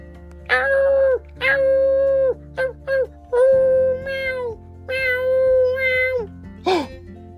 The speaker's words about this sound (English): That's the sound of the baby cheetah.